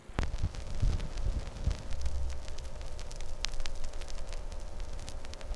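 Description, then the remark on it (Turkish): Steady vinyl surface noise with scattered sharp clicks and pops over a low rumble: the crackle of a turntable needle just placed on a record. It is fairly quiet, with no voices. “Cızırtıların arasından odaya, eve, mahalleye, şehre sevgilimle ettiğimiz danslar dolmaya başlıyor.”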